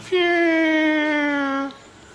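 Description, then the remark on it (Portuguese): A person imitates a mosquito's whine with one sustained, buzzy, nasal tone held for about a second and a half at a nearly steady pitch that sags slightly before cutting off. Fairly loud. “Você já notou que mosquito canta?”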